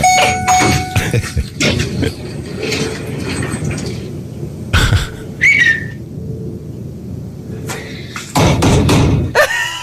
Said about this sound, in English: he pounded on the door. He goes, "Mama!" oh, because it kept going up and down.